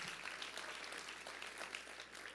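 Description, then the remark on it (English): An audience applauds together to thank Jesus during a church service, a dense, steady wash of many hands clapping at once with no pauses, sustained at an even level throughout. “Come on, let's applaud and thank the Lord together.”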